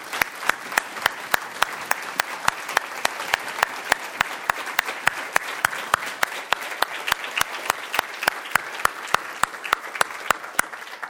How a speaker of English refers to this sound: Let's hear for her. What an amazing story. Awesome, awesome story. Yeah, let's hear it for her. Absolutely.